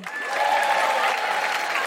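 A theatre audience applauds, with many hands clapping together in a dense, steady roar that holds at an even loudness for about two seconds, with faint voices mixed in.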